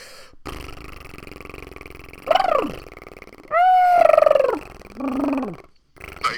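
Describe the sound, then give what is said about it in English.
A low, buzzing vocal drone hums steadily while a voice layers warbling, rising-and-falling whoops and yelps over it, imitating a didgeridoo with bird-like calls, fairly loud. “Were you good with the with the didgeridoo?”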